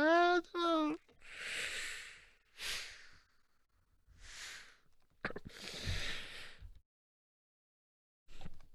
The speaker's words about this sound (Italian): No, no, questi non sono i Broncos, queste è eh, tosse nervose.